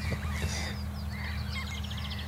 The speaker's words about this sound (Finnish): Huomaatteko, räkättirastas tulee koko ajan lähemmäs. Joo. Se on taas aloittanut siellä vähän kauempaa. Kyllä. Kohta no se nyt... on ihan mikissä kiinni. Se on hyvin lähellä jo.